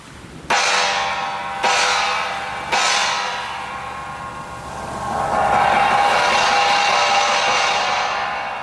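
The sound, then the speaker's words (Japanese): A departure gong (dora) is struck three times about a second apart at Aomori pier, marking the departure of the Hakkōda Maru, the final Seikan ferry, on 13 March 1988. Each loud clang rings out with a shimmering metallic decay, before a steady broad wash of sound swells up and holds. “そして同じ日青函航路では連絡船最終便八甲田丸の出港を告げる最後のドラの音が青森桟橋に鳴り響いていた”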